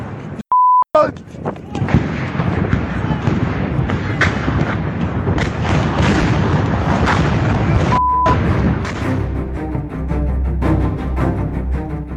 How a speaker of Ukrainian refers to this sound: Вибухи не припиняються.